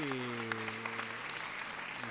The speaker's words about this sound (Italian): viene applaudito da tutti i ragazzi, e dal pubblico, eh, stanno ringraziando